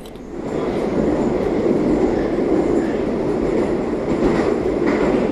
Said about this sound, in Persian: اما یکی دو دقیقه بعد قطار وارد تونل زیرزمینی شد